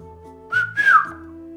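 A person gives two quick, sharp whistles to get someone's attention, the second longer and sliding downward in pitch, loud over a steady low musical drone.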